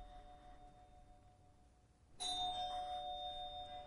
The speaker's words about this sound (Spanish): Al día siguiente despierta en un diván al oír el timbre.